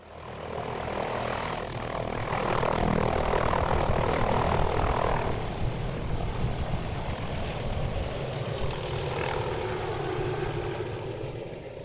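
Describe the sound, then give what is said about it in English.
A helicopter flies in to Lake Graney at the western end of the Haast Range in mid December, its steady engine and rotor drone loud and continuous for the whole stretch, swelling slightly in the middle before easing off a little. No one speaks. “The big question hanging over us was whether the helicopter could make it in two days in a row.”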